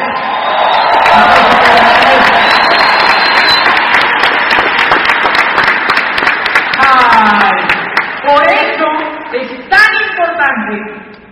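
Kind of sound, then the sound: crowd, audience applause and cheering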